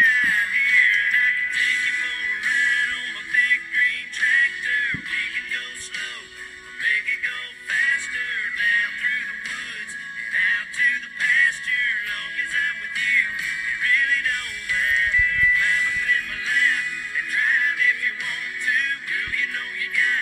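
A country song plays steadily for about twenty seconds over a Zoom call, sounding thin and tinny, with a bright midrange and little bass. Nobody talks over it.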